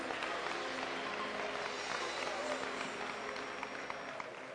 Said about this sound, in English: Let's get Lord a hand clap. Come on now.